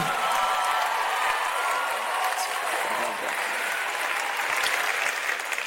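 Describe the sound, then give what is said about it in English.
Sustained applause from a crowd, a dense, steady wash of many hands clapping at once that stays loud and even for several seconds without pause. “Give him a clap, will you please?”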